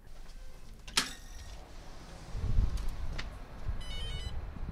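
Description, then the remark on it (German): After a sharp click and some low rumbling handling noise, a mobile phone ringtone starts up near the end, a brief, fairly quiet electronic melody with no one talking. “Oh, mein Handy.”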